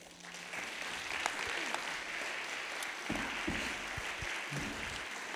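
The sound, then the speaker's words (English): After a prayer, an audience claps their hands in a steady, dense burst of applause that fills the whole clip, with a few sharper individual claps standing out near the end. “Clap your hands like it's so.”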